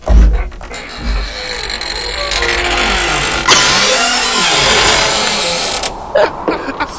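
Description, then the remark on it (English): A creaky house door opens slowly to let the dog Junior out, in one long, drawn-out groaning squeal with shifting pitch, loud, ending in a few soft knocks. “You have the thriller door in your.”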